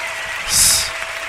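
Audience applause, a steady wash of many clapping hands that swells briefly in the middle and then settles back to a constant patter, with no voices.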